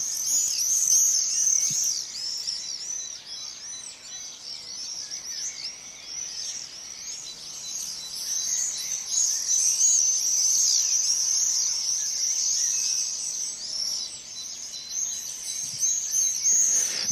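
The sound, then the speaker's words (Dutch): Owl chicks with black facial masks calling: a steady, continuous chorus of thin, high, wheezy chirps and hisses that overlap and repeat without pause, fairly loud and with no talking. “Maar goed, dan, dan zie je eh, die jongen eh, zitten en eh, hoor je ook de geluiden die ik dat net heb laten horen.”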